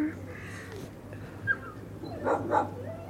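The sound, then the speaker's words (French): A few dog barks, two close together near the end, rising over a steady low background hum with no talking. “Ah, je pense qu'il y avait d'autres chiens.”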